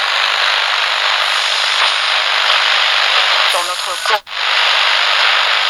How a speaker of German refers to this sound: Habt ihr herausgefunden, was hier rauscht? Jetzt kommt die Auflösung. Es ist ein kaputtes Radio.